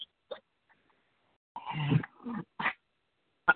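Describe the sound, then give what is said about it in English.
A dog lets out a few rough, irregular barks and a short growl in the background, fairly quiet, with brief pauses between them and no one talking. “That's my dog in the background.”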